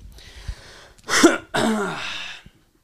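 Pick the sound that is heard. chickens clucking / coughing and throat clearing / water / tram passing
coughing and throat clearing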